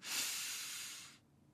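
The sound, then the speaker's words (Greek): During a guided breathing exercise, a single deep breath is drawn in through the nose, an airy, steady hiss lasting about a second before stopping abruptly. No one speaks. “Βαθιά εισπνοή από τη μύτη και μετά εκπνέουμε από ελαφρά σφιγμένα χείλη σαν να αφήνουμε απαλά τον αέρα να βγει από ένα μπαλόνι.”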